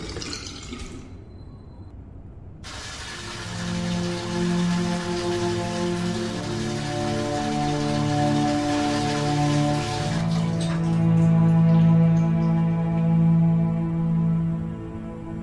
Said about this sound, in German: Er wusch sich das Gesicht, entschied sich dann aber für eine Dusche, um sich besser zu fühlen.